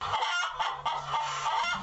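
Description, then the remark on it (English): A chicken clucks in a steady, busy stream of short squawks, fairly loud, with no talking over it. “What really transpired in the attic is unclear as the official police report of that night conflict with an eyewitness account from a local chicken.”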